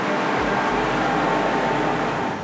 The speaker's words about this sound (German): Es ist recht laut, aber ich glaube, das kommt so von einem Maschinenraum oder was da ist.